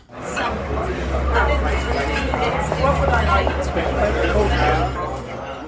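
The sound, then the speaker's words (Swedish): Steady, dense murmur of many guests chattering at once in a restaurant, no single voice standing out, layered over a low constant hum that fills the room throughout. “Och sen så ska jag ju släppa in mina restauranggäster också.”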